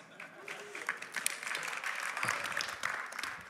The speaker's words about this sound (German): Ja, Applaus.